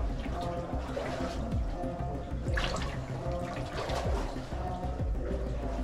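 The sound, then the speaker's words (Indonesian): Tidal floodwater from the high sea tide, near the full moon and with no rain, sloshing and trickling through a house, a steady wet churning with occasional splashes and drips, with faint indistinct voices in the background. “tidak ada hujan ini banjir karena memang pasang air laut terutama ketika mendekati bulan purnama”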